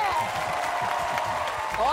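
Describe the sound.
Dense, steady applause from an audience fills the whole two seconds, with crowd voices mixed in and a rising whistle-like whoop near the end.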